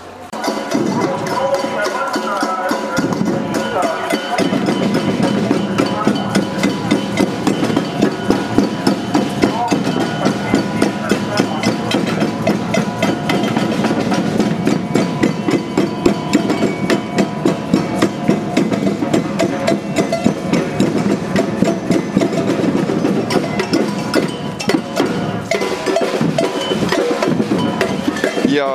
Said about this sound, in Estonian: need on nüüd äh, päris äh, rongkäigu alguse helid. Äh, trummid mürsuvad, jalad tatsuvad, koerad liiguvad rõõmsalt ringi ja rongkäik saab kohe alguse.